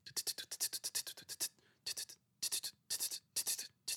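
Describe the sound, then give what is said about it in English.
A voice imitates trap-style triplet hi-hats with crisp, breathy 'ts' sounds: a fast, even run of about a dozen hits, then short clustered bursts in a triplet-like rhythm, fairly loud. “I have been making boom trap, which is a hybrid of using like analog, real boom bap sounding drums, but programming trap style double time, you know, or quadruple time hi hats and triplet hi hats”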